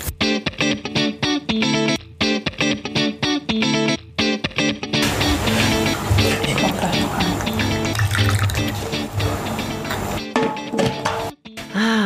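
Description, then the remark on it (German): Coffee is poured from a coffee pot, a loud stream of gurgling, splashing liquid. Choppy rhythmic bursts come first, then a steady dense pour that continues to the end. “und das Geräusch der Kaffeekanne ist das perfekte Intro für eine neue spannende Episode von Gay Mom Talking.”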